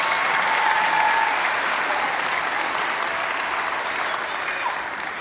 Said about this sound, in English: Can you give a round of applause for our characters this week?